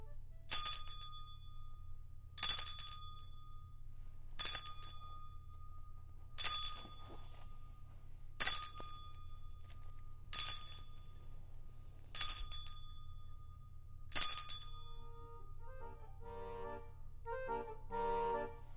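A bright, ringing bell chime strikes eight times at a steady pace, about every two seconds, each ring fading quickly. Faint tonal chirps follow after the last strike over a low background hum.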